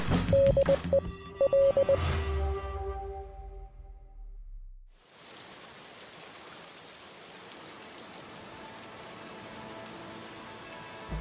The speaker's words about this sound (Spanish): Estamos en el techo del edificio Bradbury, en un Los Ángeles sumido en una lluvia eterna y ácida.